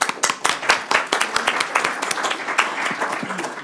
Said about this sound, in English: Thank you all. I'm going to give them a little applause.